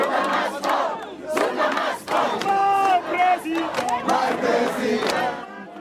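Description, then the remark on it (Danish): A large crowd at a Zuma Must Go protest chants in unison, many voices rising and falling in loud rhythmic bursts with sustained shouted tones, filling the whole clip without any single speaker standing out. “Jamen, der sker det, at altså, der har været meget store folkelige demonstrationer under øh, det hashtag, der hedder Zuma must go.”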